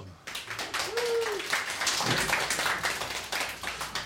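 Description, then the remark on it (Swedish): A burst of applause starts abruptly and continues steadily, many hands clapping in a dense, crackling patter, with a brief whooping voice rising over it early on. “Applåd!”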